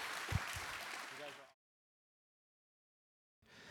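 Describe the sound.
A crowd breaks into applause, a dense crackle of many hands with some voices mixed in, then cuts off abruptly into silence before the clapping briefly returns at the very end.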